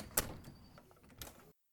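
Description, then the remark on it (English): A door closes behind someone who has just passed through it: a sharp knock, a brief scraping slide, then a second softer thud as it shuts, followed by abrupt silence. No voices. “You make it safely through the door and close it behind you.”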